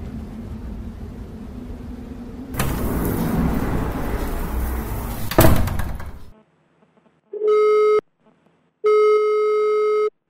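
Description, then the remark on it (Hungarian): Loud street or traffic noise ends with a thud, then after a brief silence a telephone ringing tone sounds twice as a call is placed to a former boss from a newly bought phone, two steady electronic buzzes about a second long with a pause between. “Gyorsan kiszaladt az utcára, vett egy telefont, és felhívta rajta egykori szeretett mesterét, és volt főnökét.”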